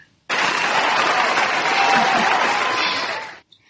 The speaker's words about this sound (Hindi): मेरे बारह वीक के क्लासेस में हम ऑलरेडी सिक्स वीक तक पहुंच गए हैं आई थिंक तालियां तो बचनी चाहिए